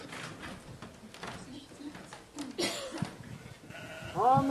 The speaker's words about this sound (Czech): Takže abychom si to ukázali, tak mám tady krátký video, kde pastýř volá do mlhy a uvidíte, jak k němu přiběhnou z té mlhy ty skoro slepí, tak trochu hloupí, ale dobře slyšící ovce.